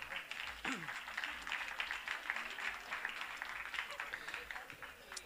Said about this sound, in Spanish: Aquí están, muy bien, un aplauso para ellos. Pegalen el aplauso.